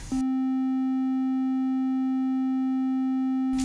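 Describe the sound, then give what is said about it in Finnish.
A telephone ringing as a single unbroken electronic tone, steady and mid-pitched with a buzzy edge, holding at an even level for about three seconds before cutting off. No one speaks. “Täällä näköjään soi puhelin.”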